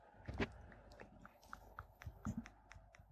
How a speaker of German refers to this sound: Ja, es ploppt halt so ein bisschen, ne? mhm. Je nach Taste, wie man, wie man die drückt, so.